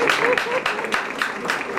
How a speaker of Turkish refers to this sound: Usta gazeteci geride yazılmamış satırlar bırakarak toprağa verileceği baba ocağı Şanlıurfa'nın Tülmen köyüne alkışlarla uğurlanırken Türk basını bir usta kalemine daha veda etmenin acısını yaşadı.